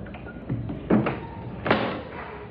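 An apartment door eased shut quietly and stealthily by someone who has just entered: a soft scraping slide followed by two muted thuds about a second apart, the latch clicking into place, with no voices.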